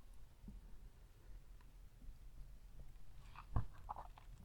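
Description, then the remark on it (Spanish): Faint mouth sounds of someone sipping and swallowing coffee, mostly quiet, with a short wet gulp and a soft click near the end, no talking. “Eh, pausa para trago de café.”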